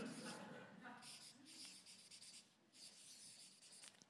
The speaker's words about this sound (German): Also falls jemand diese Predigt gerade im Internet hört, ich versuche das auf eine Tafel zu schreiben.